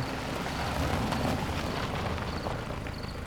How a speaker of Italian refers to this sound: Un camper si è appena fermato davanti al capannone. Il motore si spegne